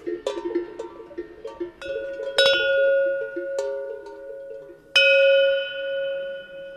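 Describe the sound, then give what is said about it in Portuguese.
A chocalho, a cattle bell of the Alcáçovas bell-making craft, is shaken again in uneven bursts of clanking metallic strikes, each leaving a bright ringing tone that lingers, with a final loud clang that rings out slowly; no voices. “O chocalho volta a abanar enquanto.”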